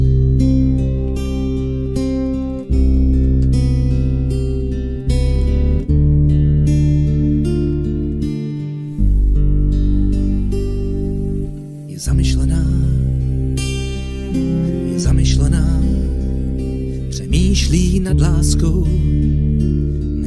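A song played from YouTube featuring a cellist, with sustained, resonant low bowed cello tones layered with rich harmonic accompaniment, playing steadily and fairly loud with no talking over it.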